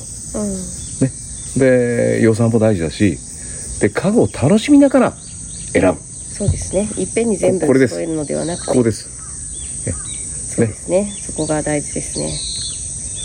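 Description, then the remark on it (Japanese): A steady, high-pitched drone of cicadas runs continuously in the background outdoors on the deck of a home, with a few faint bird calls, while two people hold a relaxed conversation in the foreground. “はい今日もあの賑やかな セミの声やら鳥の声やら賑やかな自宅のデッキでお送りしましたが”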